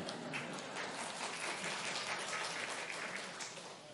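An audience at a church service applauds to thank a helper, in a steady, dense wash of clapping that holds evenly for several seconds and fades slightly at the end, with no voices over it.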